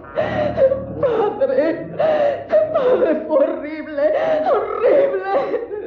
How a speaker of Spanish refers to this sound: Luego le sobrevino una tremenda congoja que dio paso a un ataque de llanto nervioso.